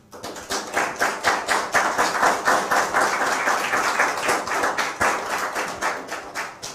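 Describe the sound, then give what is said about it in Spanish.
Audience applause welcoming the whole community fills the whole stretch, a dense, steady patter of many hands clapping at a fairly strong, even level with no voices on top. “Y nuevamente, recibamos a toda la comunidad con un fuerte aplauso, por favor.”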